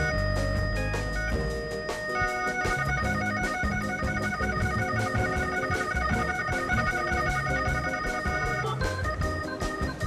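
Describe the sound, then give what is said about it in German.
A telephone rings with a steady, repeating electronic tone pattern, loud, continuing throughout while a call to a hairdresser waits to connect. No one speaks. “Ich brauche eine Telefonschaltung zu einem Friseur.”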